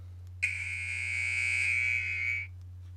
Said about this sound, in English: All right, and when your 15 second is up, this, of course, is the buzzer.